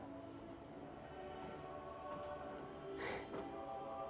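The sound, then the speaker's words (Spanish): Faint creaks and ticking cracks from the wooden structure of a refuge, caused by changes in the weather, a couple of brief sharper pops near the end, set against a quiet, steady hum with no one talking. “Yo creo que es la madera, con los cambios de clima que van produciendo estos ruidos.”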